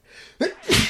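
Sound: sneeze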